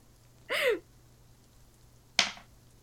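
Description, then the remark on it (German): Dice being rolled for a persuasion check: a short rattling burst, then a moment later a single sharp clack as they land, fairly quiet, with no one speaking. “Ich werde das jetzt würfeln.”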